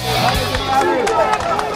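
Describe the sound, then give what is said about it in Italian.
A large outdoor crowd at a rally in Milan applauds General Pappalardo, with scattered claps rising out of a steady roar of cheering and shouting voices that fills the whole moment, loud. “Applausi al generale, chiaramente.”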